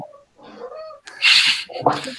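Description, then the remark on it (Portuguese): A cat lets out a few strained meows and yowls, the middle cry loud and harsh with a hissing, breathy edge, followed by a shorter complaining call. “Episódio com gatos é assim mesmo.”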